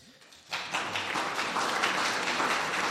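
Applause from an audience breaks out after a brief quiet moment, a dense, steady wash of many hands clapping that holds at an even loudness to the end.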